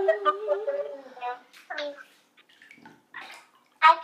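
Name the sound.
water splashing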